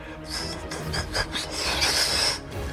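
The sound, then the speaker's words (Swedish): A swarm of hundreds of small bats, woken by loud noise below, whirls in a big circle from the ceiling: a dense, rustling rush of wingbeats, with rapid raspy bursts and faint high squeaks swelling and fading for a few seconds. No one speaks. “Det virvlar runt och när ni tittar uppåt då så ser ni hundratals fladdermöss.”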